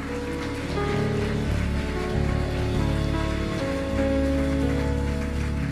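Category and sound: crowd, audience applauding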